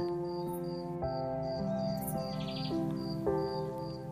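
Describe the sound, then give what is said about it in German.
Grasshoppers chirp in steady, repeated high-pitched pulses, clear and fairly loud, over a sustained droning musical background with no talking. “Ein wunderschönes, deutliches Zirpen dringt in deine Ohren. Die Grashüpfer singen.”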